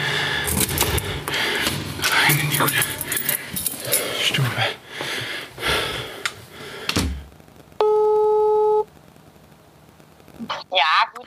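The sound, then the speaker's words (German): Keys jangle and a door lock clicks and rattles as the door is unlocked and pushed open, followed by a steady electronic beep lasting about a second and a brief rustle. “So, dann äh, Schlüssel raus, Tür auf.”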